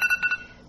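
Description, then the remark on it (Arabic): A short electronic bell tone, set as a timer to signal that it is time to finish, chimes in a few quick pulses, its bright ringing partials fading out within a second. It is fairly quiet and plays alone, with no one talking. “بس هيدا الجرس هو الجرس اللي بحطه لأعرف إني وقت آه، أنهي البودكاست”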